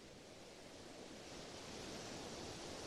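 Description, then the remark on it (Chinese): Gentle sea waves wash steadily against a beach, a soft continuous hiss of surf that swells slightly halfway through. Quiet, with no voices. “海浪拍打沙滩的声音，让你感到心情平静，好像可以忘记脑海中的一切。”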